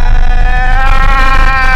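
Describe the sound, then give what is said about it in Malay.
A loud, steady car engine drone with strong harmonic whine that rises slightly and holds, then dips at the end, as the driver speeds up and crosses a yellow lane line. No one speaks over it. “Eh, aku langgar lain kuning ni. Eh, aku tengah buat kereta. Eh, laju sikit.”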